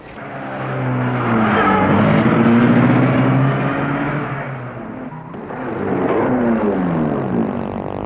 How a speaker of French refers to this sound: Est-ce que votre voiture peut rouler Je vais essayer. Il monte dans la voiture.